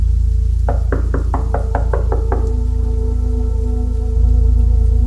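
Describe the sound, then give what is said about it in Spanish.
A quick series of about eight sharp knocks on the door of a house in the early hours of a dark night, evenly spaced, heard over a steady background hum or rain-like wash, with no one speaking. “Y así fue, hasta que una noche muy oscura y silenciosa, durante plena madrugada, escuchó que alguien estaba tocando a la puerta de su casa.”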